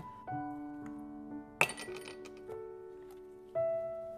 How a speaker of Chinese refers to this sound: 另取一个杯子，加冰块，